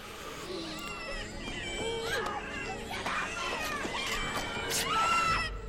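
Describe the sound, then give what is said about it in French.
Several deaf adults make wordless gurgling, cooing vocalisations that resemble newborn babies, overlapping in a steady, wavering stream of rising and falling tones. “j'ai pensé aux vocalisations des gens sourds qui ont comme ça une sorte de c'est des adultes, mais qui un peu gargouillent comme des nouveau-nés, donc il y a quelque chose de très bizarre là-dedans.”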